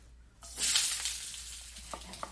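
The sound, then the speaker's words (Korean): Food sizzles in a hot pan as tofu is added at the end of cooking, a sudden hissing burst that swells then settles into a steady crackle, with a couple of light clinks near the end. No one speaks. “어 조금만 두부만 넣으면 끝.”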